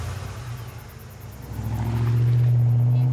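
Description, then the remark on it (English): A truck engine rumbles steadily, then revs up and grows louder as it accelerates, its low drone rising in pitch, as the driver starts for home. No voices. “gets in his truck, and starts for home.”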